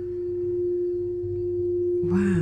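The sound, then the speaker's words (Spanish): A gong played in a sound bath session: its deep, steady resonance hums throughout, then near the end a fresh strike adds a brighter, shimmering swell over the sustained tone. No voices. “Ahí es más o menos el gong que se escucha.”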